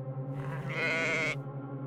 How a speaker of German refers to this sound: Nur das Blöken der Schafe ist hin und wieder aus der Ferne zu hören.